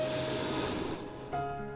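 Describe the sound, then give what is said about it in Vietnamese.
A slow, soft inhale through the nose during breath-counting meditation, a steady airy hiss lasting about a second before easing off, with no talking. “có một số phương pháp khác ví dụ như là các bạn có thể đếm số hít vào thở ra là một hít vào”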